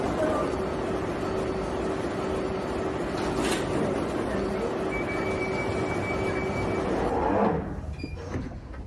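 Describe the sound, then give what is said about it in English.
Steady rumbling underground train noise with a sustained mechanical hum and whine, a brief clunk partway through, then the sound shifts and fades near the end, as the train stands at a platform. “Mind the gap between the train and the platform.”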